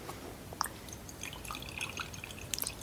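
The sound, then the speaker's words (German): Tea trickles quietly into a cup as soft, uneven drips and small splashes over a faint background hiss, with no voices. “Ich muss mir kurz unauffällig Tee einschenken.”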